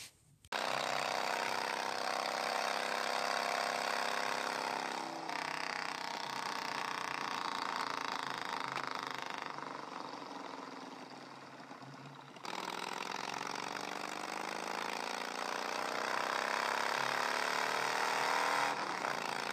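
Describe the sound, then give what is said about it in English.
A motorbike engine runs loud for the whole stretch, its droning pitch climbing as it revs and accelerates, then easing off before surging again. No voices. “Let's jump on a motorbike. See how far we get.”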